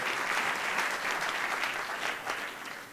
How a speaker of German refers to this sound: ja, kleiner Applaus für euch selber. Habt ihr richtig gut gemacht?